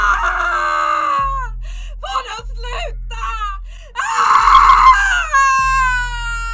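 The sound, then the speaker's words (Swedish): A woman screams in agony as she steps out onto a cobblestone square. Long drawn-out wailing cries rise and break into a harsh, strained shriek midway, loud, with short choked gasps between the cries. “Men i samma ögonblick som Darcy tar sina första steg ut där så kan du höra hennes plågade skrik.”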